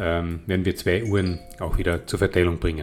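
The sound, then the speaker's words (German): A short electronic notification tone from the man's mobile phone chimes briefly while he keeps talking over it, the tone steady and fairly faint beneath his voice. “Das war mein Handy, aber das stört nicht, das gehört dazu.”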